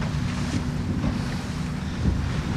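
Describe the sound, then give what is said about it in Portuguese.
A sailboat gybing in strong wind while sailing downwind with the wind from behind, the sail swinging across to the other side amid a steady roar of wind buffeting the microphone and water washing, with a couple of brief louder surges. “Entrar à popa agora navegar à popa, isto é, com o vento por trás, cambou, rodou a vela para o outro lado.”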